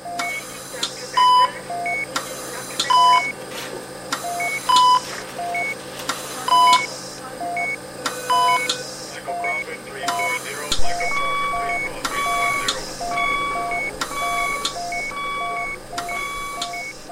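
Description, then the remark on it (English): Overlapping electronic beeps from ICU monitoring equipment repeat in steady, interlocking rhythms, several alarm tones at different pitches sounding together against a low background hum. “If you've ever been to an ICU, this is the sounds you may have heard. Now imagine being hospitalized and having to listen to this 24 7.”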